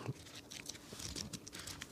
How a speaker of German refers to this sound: Na, dann blättern wir weiter im Buch.